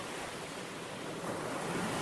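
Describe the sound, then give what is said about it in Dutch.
Ocean waves crash against rocks in a continuous roaring wash of surf, swelling louder partway through, with no voices present. “een angstaanjagende rotsketen waar het land ophield en zijn oren werden verdoofd door het donderen van het water, terwijl het klotste en brulde en raasde in de ontzaglijke inhammen die het had uitgeslepen en driftig probeerde de aarde te ondermijnen.”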